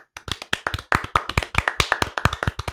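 applause

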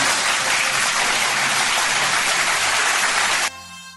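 applause

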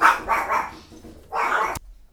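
dogs barking

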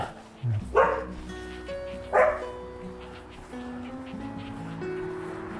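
several dogs barking

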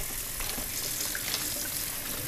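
tap water running

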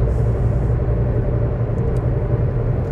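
car interior

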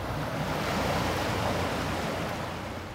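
ocean waves at sea

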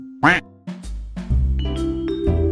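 duck quacking sound effect

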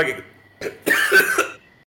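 coughing

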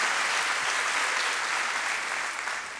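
audience applause

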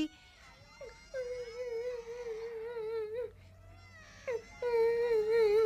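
child crying and whimpering

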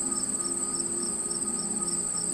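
crickets chirping

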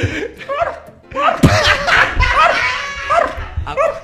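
dog barking sound effect

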